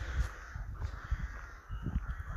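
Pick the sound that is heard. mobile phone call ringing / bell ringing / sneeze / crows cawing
crows cawing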